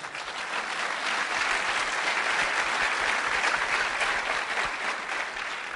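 Sustained audience applause for a speaker at a business talk fills the whole stretch, a dense steady patter of many hands clapping, fairly loud and even throughout with no speech over it.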